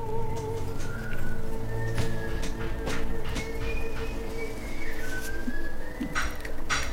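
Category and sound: human body sound, whistling through fingers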